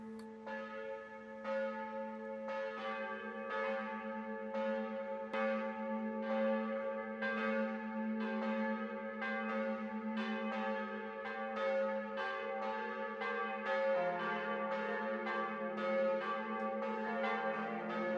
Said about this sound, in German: Zuerst von der Kirche St. Peter in München, dem alten Bäder, wo eine Glocke sehr, sehr alt ist, die sogenannte Zwölferin. Sie ist im Jahr 1382 gegossen worden und läutet bis heute.